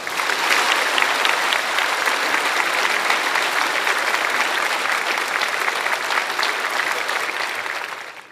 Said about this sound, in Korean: 먼저 원로 목사님 나오셔서 하나님의 말씀 주시겠습니다. 나오실 때 뜨거운 박수로 축복하겠습니다.